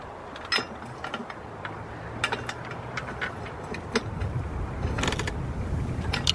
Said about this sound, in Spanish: Agarra una llave tipo L, coloca bulones y los ajusta.